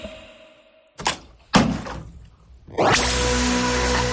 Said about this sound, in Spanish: Efectivamente, era dejar caer una botella de agua.